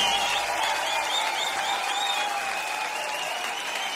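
Audience applause fills the whole stretch, a steady, dense wash of many hands clapping at an even, fairly loud level, with a faint crowd murmur underneath and no distinct speech.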